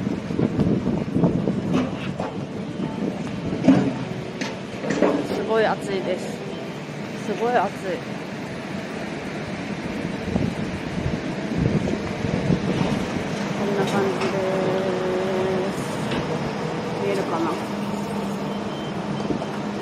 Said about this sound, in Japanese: まあ、ちょっと今日はせっかくなのでね海をお見せしようかと思います